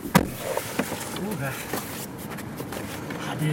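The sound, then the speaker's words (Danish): Strong wind blows in a steady, rough rush across the microphone at about minus 20 degrees, with brief bursts of talking and a few short knocks cutting through the noise. “det blæser rigtig meget, det kan man også godt høre.”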